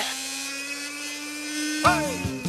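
A hand blender motor runs with a steady, high-pitched whine for about two seconds, then grows louder near the end as its pitch wavers and bends, introducing the 'stavmikser' segment of the Radioresepsjonen show on P3.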